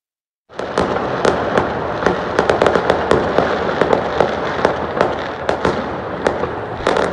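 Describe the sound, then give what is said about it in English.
A dense, continuous barrage of fireworks going off in Vancouver on Halloween night, crackling and popping, with rapid sharp bangs layered over a rumbling roar, loud throughout with no voices. “Wow was Vancouver last night with all the fireworks going off.”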